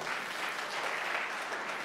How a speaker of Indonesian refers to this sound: Beri tepuk tangan buat Tuhan Yesus, saudara.